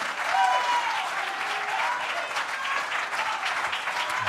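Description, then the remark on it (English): A church audience claps together for the Lord before being seated, in sustained, dense applause, many hands blending into a steady roar that holds at an even level for several seconds, with faint voices mixed in. “And let's give the Lord one good hand clap before we're seated.”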